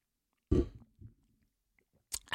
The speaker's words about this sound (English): Hold on. I need another chug before we get into that.